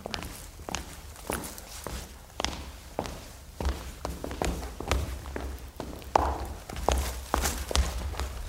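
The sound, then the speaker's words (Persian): A mother's steady footsteps thud along at a walking pace, approaching her child's bedroom and growing slightly louder as they go, about two steps per second with no talking. “وقتی صدای قدمای مامانش شنید که به اتاقش داره نزدیک میشه یه نفس راحت کشید و بلند شد و سر جاش نشست.”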